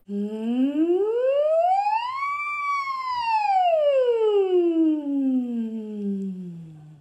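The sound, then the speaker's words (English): A single voice glides slowly up from a low pitch to a high peak and back down again in one smooth, sustained siren-like sweep, steady, with no talking; a slow siren vocal exercise for keeping the larynx mobile and flexible. “Yep and then coming back down, but breaking it down into these milli, milli, milli, milli. The, um, the slow siren.”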